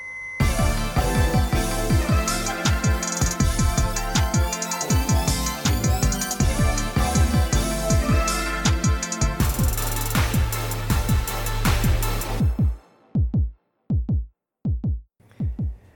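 The Meucast theme jingle: loud, busy electronic music driven by a steady pounding kick drum under dense bright layers. It cuts out near the end, leaving a few isolated bass thumps. No one speaks.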